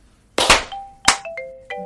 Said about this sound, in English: Okay, three, two, one, clap.